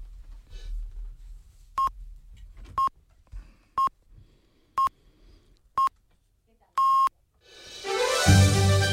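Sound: radio time signal beeps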